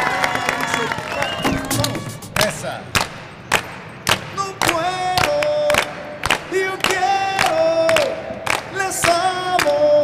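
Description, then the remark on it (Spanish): An audience applauds as a guest is introduced, with sharp, uneven claps rising out of a busy crowd murmur and some high cheering or whistling voices layered through it, loud and steady for the whole stretch. “Aquí está con el aplauso de todos,”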